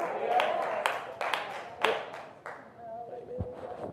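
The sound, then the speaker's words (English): Scattered, sparse clapping from three people: about half a dozen sharp, uneven claps spread over a few seconds, with a murmur of background sound and voices underneath. “Thank all three of those people that clapped.”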